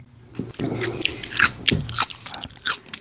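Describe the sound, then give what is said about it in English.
Wet chewing and crunching of food at the beginning of a recording, with repeated irregular bites and mouth noises filling the short stretch, fairly loud and intimate, no talking. “I can cut out stuff in the beginning, like the chewing noises.”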